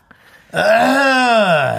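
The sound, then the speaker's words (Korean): A man's voice imitates an old man's throat clearing, as a grandfather does on coming into the house to announce his arrival, a single drawn-out, low, gravelly "ahem" held for over a second after a brief quiet pause, fairly loud. “이게 헛기침 한다는 건 이제 내가 왔다는 걸 알려주는 어떤 어.”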